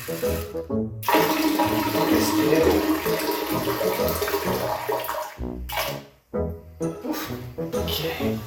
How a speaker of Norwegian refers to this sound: Så da er det bare å få tissa i koppen. Se. Se om jeg får det å tisse, da. Ja, det går fint.